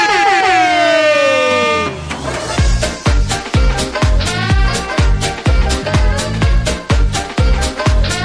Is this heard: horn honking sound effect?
yes